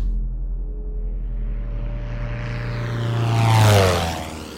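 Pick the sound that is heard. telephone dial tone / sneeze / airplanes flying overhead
airplanes flying overhead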